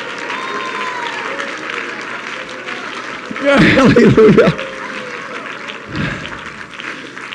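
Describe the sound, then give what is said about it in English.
An audience at a Christian worship service claps steadily and continuously, a dense wash of hands, while a loud shouted voice bursts out over the applause midway, then fades back into the clapping crowd. “Oh, clap your hands again and shout, shout, shout with the voice of triumph unto the great one, to the mighty one, to the almighty one, whose name is Jesus of Nazareth.”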